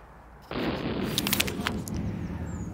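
A fireworks sound effect: a sudden whooshing burst erupts, followed by sharp crackling pops and sizzling sparkles that fade slowly, loud with no voices.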